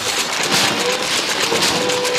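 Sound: rain falling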